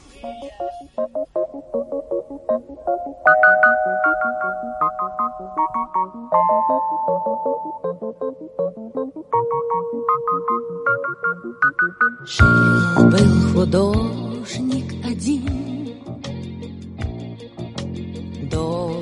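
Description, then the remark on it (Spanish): A Russian pop song by a female singer, the best-selling recording artist of the Soviet era, opens with a light, bright melody over soft accompaniment, then a full band bursts in partway through with drums and denser instrumentation, loud. “un mito viviente de la música popular de Rusia, la artista que más discos vendió durante la época soviética.”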